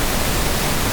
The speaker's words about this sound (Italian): Il fratello meno famoso del rumore bianco è il rumore rosa, in cui l'intensità del suono diminuisce con l'aumentare delle frequenze, per cui è un po' più carico sui bassi, diciamo, e suona così.